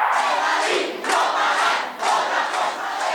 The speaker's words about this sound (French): Ça, c'était le lundi 21 octobre. C'était euh, la manifestation de soutien des Chiliens euh, résidents résidant en France. Et c'était à Paris, la manifestation.